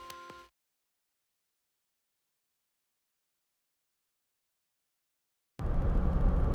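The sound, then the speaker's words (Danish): A short tonal burst opens, then several seconds of silence, before a loud, steady low rumble of a car's engine and road noise from inside the vehicle, driving around Viborg in Denmark, fills the final second. “i dag der er jeg på tur i min bil i omegnen af Viborg.”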